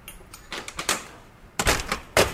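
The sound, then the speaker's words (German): A metal door of a small utility building at a hydrogen feed-in facility, leading to the gas room where hydrogen enters, is unlatched and swung open, with a series of clicks and clunks followed by two heavier knocks as it moves on its hinges. “öffnet die Tür.”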